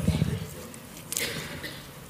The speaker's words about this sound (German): Und jetzt darf mir meine liebe Frau meine Wasserflasche geben.